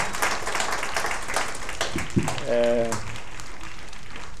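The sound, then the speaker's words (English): An audience applauds steadily to welcome the ambassador of Turkey, a dense wash of many hands clapping that fills the room, with a brief tonal shout or cheer rising midway through. “give a round of applause, ambassador of Turkey.”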